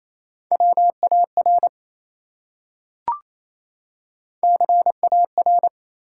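Rapid Morse code beeps at a single steady mid pitch, sent at 28 words per minute as three-letter words, in two quick bursts of dits and dahs with a pause between and a brief click in the gap. No voices.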